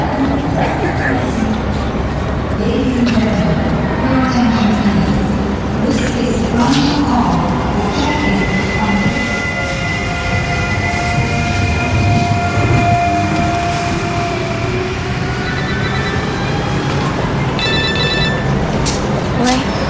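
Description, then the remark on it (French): A busy railway station: a train rumbles steadily, its metallic squeals and drawn-out tones rising and falling, while indistinct voices murmur in the background throughout. “C'est trop tard là, j'ai mon train dans 20 minutes.”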